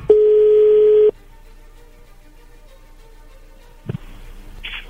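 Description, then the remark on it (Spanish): A single steady, fairly loud telephone ring tone holds for about a second, then gives way to quiet line hiss before a short burst of crackling noise as the call picks up. “Bien, a ver, vamos a, vamos a marcarle, no haga ruido, por favor.”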